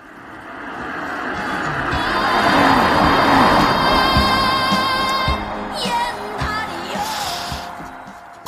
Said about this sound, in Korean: 자, 옆에 왔어요. 창밖으로 차가 지나갑니다. 옆차 사람들 무슨 노래 듣고 있을까요? 들어보시죠.